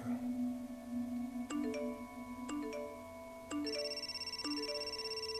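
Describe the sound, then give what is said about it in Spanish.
A mobile phone rings over and over, its bright electronic chime tones repeating roughly once a second and stacking into a busy, insistent jingle, clear with no talking; employees of the owner's company are alerting him that the company's shares are regaining value. “De repente, el teléfono de Adrián se volvió loco.”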